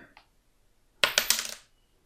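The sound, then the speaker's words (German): A coin is flipped for heads or tails and lands on a hard surface, clattering through a quick series of bright metallic bounces that fade into a short ring. It is fairly loud, with no voices. “Oder eine Münze.”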